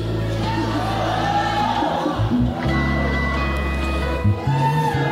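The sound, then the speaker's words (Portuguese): A church audience runs, jumps and shouts excitedly over loud, steady music with deep sustained tones. The noisy crowd sound fills the whole stretch without a pause. “Por que esse povo está correndo? Pulando, gritando.”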